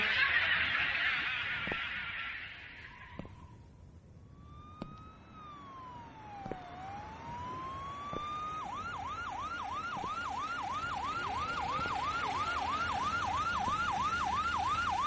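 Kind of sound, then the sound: vehicle, police car siren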